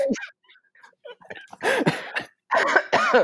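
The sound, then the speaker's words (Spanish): A strained, choking cough: a short hack, then two loud, raspy bursts of sputtering coughs with a gasping, croaking quality, otherwise alone. “Ahogado, ahogado.”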